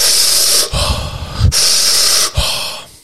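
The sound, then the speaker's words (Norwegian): Heavy, forceful hyperventilation-style breathing exercise (Wim Hof breathing): loud hissing exhalations alternating with quick, rough inhalations, about two full breath cycles in rapid succession with no talking. “Så Wim Hof-pusting, for de som ikke vet det, er en måte ja, Litt sånn hyperventilering”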